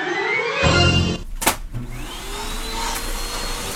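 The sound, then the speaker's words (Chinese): Weekend house cleaning noise: a steady, loud vacuum-like roar runs throughout, broken midway by a couple of sharp knocks and clunks. No one speaks. “我闹钟还没响，就听见你大扫除那个叮叮咣咣的声音了，好吧？”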